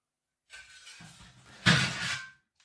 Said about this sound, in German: ist gerade meine Schippe umgefallen. Ich wollte gerade sagen, ich dachte, das wäre bei dir im Zimmer.